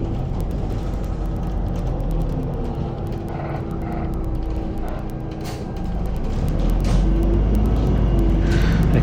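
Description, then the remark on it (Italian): Loud, steady engine rumble from inside a city bus in Bologna, with rattling and clicking mechanical noises throughout and the drone swelling slightly near the end as the bus slows to a stop after a passenger rang the stop bell, at a NaturaSì store. “qui dove adesso qualcuno ha suonato quindi si fermerà un altro un attimo l'autobus e dove ci stiamo fermando adesso c'è Natura Sì, c'è uno dei punti vendita Natura Sì di Bologna”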